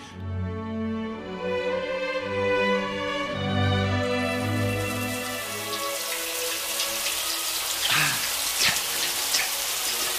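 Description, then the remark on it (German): A low humming tone gives way to a steady hiss of running water spraying down from a shower, taken before going for a swim, continuing loud with a few splashing bursts near the end. “I've got to have a shower first.”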